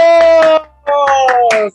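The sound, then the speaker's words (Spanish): A few sharp hand claps sound over a loud, sustained buzzing tone that holds steady, breaks off briefly, then returns with more scattered claps before stopping. “¡Aplausos!”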